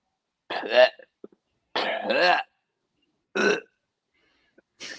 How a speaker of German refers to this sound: Ich weiß nicht, ob du das Geräusch gehört hast, aber neben mir kotzt gleich eine Katze. Oh.